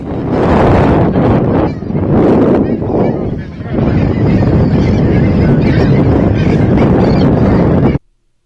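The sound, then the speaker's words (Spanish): Birds honk loudly and continuously for several seconds, goose-like calls blending into heavy wind buffeting the microphone, with a brief dip in the din before the racket resumes and cuts off abruptly. “Se ve que llevan hasta pájaros, ¿no?”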